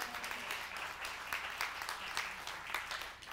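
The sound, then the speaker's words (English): A crowd applauds steadily for a few seconds, a dense, even patter of many hands clapping with no voices standing out, a round of applause for a woman joining the speaker on stage. “So, we give her a round of applause.”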